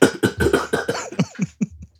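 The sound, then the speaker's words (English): A voice fakes a coughing fit after imitating smoking a spliff: a quick run of about eight rough, hacking bursts, fairly loud at first, then weakening and trailing off. “that was a little fake cough at the end.”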